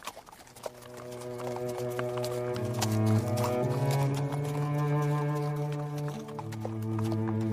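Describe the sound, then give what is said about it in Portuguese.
Horse hooves clip-clop in a steady rhythm throughout as riders travel on horseback, set against loud sustained droning tones that shift pitch a few times; no one speaks. “Vocês vão a cavalo, né?”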